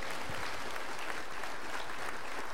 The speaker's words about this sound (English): Let's give these ladies a round of applause.